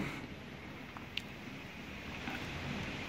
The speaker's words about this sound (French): Parce qu'il y a des gens qui rigolent, qui me disent oui, euh, ce marin qui, euh, qui s'effarouche à, la, à l'avenue d'une petite tempête, d'un grain. Je ne sais pas si vous entendez le, le bruit que ça fait dehors.